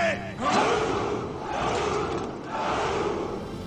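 A group of men roar a loud battle cry together, three sustained surging shouts of rough, raised voices, each swelling and dipping in turn with no pause for speech.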